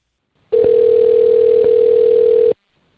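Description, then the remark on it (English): A phone call ringing out: one steady electronic ringback tone lasting about two seconds, clear and fairly loud, with silence before and after and no voices. “Well, Rob, why don't we just call Kendall and see what she says?”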